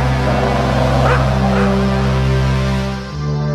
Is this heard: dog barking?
yes